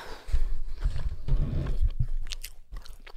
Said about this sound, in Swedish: Och gud vad jag hör ditt smaskande jättehögt.